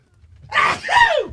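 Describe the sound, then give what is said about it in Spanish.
A single loud sneeze: a sharp breathy burst followed by a voiced, falling 'choo' that trails off, heard on its own with no talking. “¡Salud!”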